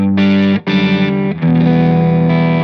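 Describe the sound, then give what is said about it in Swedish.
An electric guitar through the low input of a new two-mode prototype, with the gain turned up a little, plays three sustained, overdriven chords in turn, thick and buzzing with gain, each ringing out loud with no voices over it. “Så att jag gainar på lite grann och så har jag det låga inläget så låter det så här”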